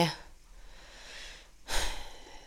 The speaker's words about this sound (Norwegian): ja, må puste litt.